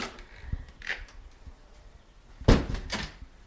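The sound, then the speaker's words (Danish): The front door of a house in Aalrup, built as a summer house on a quiet residential street, opens: soft handle clicks and rattles, then a solid thud as the door swings, followed by a brief scraping sound. No voices. “Så det første, man oplever, når man kommer ind ad døren”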